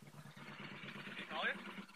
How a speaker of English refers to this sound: Oh, mo- motorcycle.